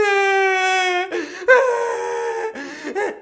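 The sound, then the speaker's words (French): A voice mimics crying with a long, high wavering whine followed by several shorter whimpering sobs and catches of breath, fairly loud, with no talking. “Pleure, vas-y. Ah ouais. Vas-y, plus fort. Vas-y. Hey, check ça, je vais t'imiter.”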